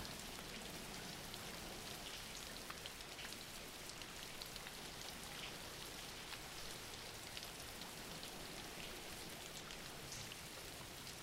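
Steady rain falls without pause, a dense, even hiss of countless drops pattering on a surface, fairly soft and unchanging throughout, with no voices or thunder.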